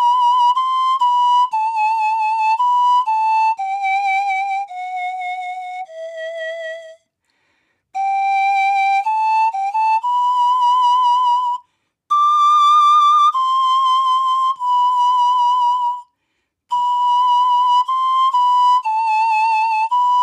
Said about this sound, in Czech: Dá se to, vlastně teďka ta melodie i na tu altovku, eh, jenom pro srovnání zvuku. Tak trošku jiný to, jiný